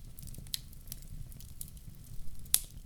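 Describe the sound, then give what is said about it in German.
Wind rumbles steadily underneath scattered patters and a couple of sharper splashes, like rain striking the ground. The whole scene is fairly quiet, with no voices. “Der Wind tollt, der Reden peitscht und prasselt zu Boden.”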